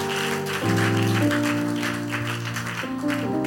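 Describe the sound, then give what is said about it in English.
A church crowd claps steadily for their preacher, a dense wash of hand claps layered over sustained keyboard or organ chords that shift pitch a few times. “Clap your hands for our father.”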